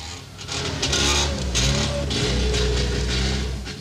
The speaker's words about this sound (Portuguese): Vão no próprio carro, um apertado Trabant, de fabricação local, que conseguiram comprar depois de muitos anos na fila de espera.